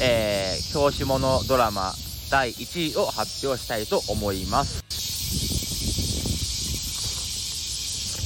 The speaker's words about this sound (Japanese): 本日8月5日土曜日ですけども、えー、セミの声に負けずに、